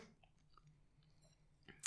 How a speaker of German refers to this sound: Mein Mund ist leer. Mund ich könnte mir das ja nicht anhören, wenn da Leute kauen. Nee. Wir kauen jetzt auch nicht mehr.